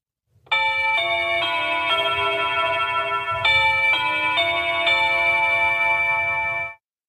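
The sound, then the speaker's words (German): The doorbell of a suite aboard the river cruise ship Riverside Mozart plays the Big Ben chime melody, a sequence of bright, sustained bell tones ringing out one after another over about six seconds, with a faint low hum underneath and no talking. “Die Big Ben-Melodie ist übrigens die Klingel zu Peters Suite.”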